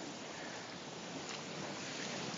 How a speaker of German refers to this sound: Hier am Strand von Malos